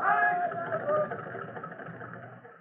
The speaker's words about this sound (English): Slowly, with her engines straining to the utmost, the fireboat pushes the great flaming barge down the river.